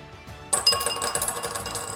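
Dice clatter onto a hard tabletop for a combat roll, a sharp bright impact followed by a quick series of rattling bounces and tumbles that settle over about a second and a half, with no talking.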